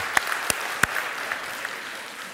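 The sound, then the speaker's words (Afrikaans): A crowd applauds for the person who brought the pumpkin and for those taking part, scattered hand claps blending into a steady wash of clapping, with a few sharp, louder claps standing out near the start before the applause evens out and fades slightly. “Ek, ek wil hê jy moet vir die een hande klap wat die pampoen gebring het, maar ook vir die ou langs aan jou wat deelneem.”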